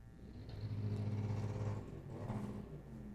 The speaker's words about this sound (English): Wow. What? Did you hear that? Yeah, they drove in on a motorcycle.